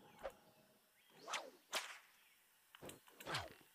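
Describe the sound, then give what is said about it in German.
A video game whip cracks about five times in uneven succession, several strikes preceded by a short whooshing swing, each ending in a sharp snap. No one speaks. “Vielleicht muss ich springen und peitschen.”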